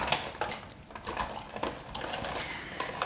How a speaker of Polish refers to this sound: natomiast do garnuszka z powrotem wlewam wodę po makaronie. Zium. Ok. I, I wrzucamy tam bób do gotowania.